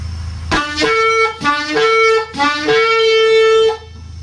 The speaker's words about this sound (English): That will be the shevarim, which is the three staccato blasts.